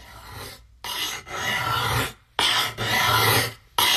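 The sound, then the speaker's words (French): Repeated rough rasping strokes across wood from an Apple ASMR video, a carpenter working wood, filing and rubbing in steady back-and-forth passes with brief pauses between, fairly loud, no voices. “Un menuisier qui travaille le bois.”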